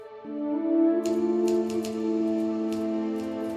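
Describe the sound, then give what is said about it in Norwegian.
Scattered typewriter keystrokes clack irregularly in short bursts as a man types bent over a typewriter, sitting over a loud, steady bed of sustained musical tones that nearly drowns them out. “Han satt bøyd over skrivemaskinen flere timer i strekk”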